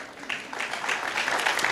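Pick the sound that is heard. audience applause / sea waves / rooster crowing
audience applause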